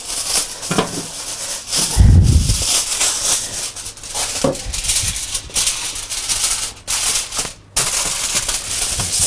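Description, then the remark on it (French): Aluminium foil crinkles and rustles steadily as it is placed over a foie gras terrine for several seconds, with bright crackly bursts and a dull low thump early on. Nobody speaks. “notre terrine, on va mettre un papier d'alu dessus.”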